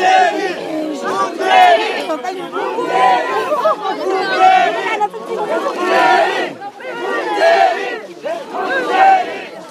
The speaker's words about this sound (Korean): 문재인 멋있다! 문재인 전 대표가 움직일 수 없을 정도로 많은 시민들이 지금 몰려들었습니다. 문재인! 문재인!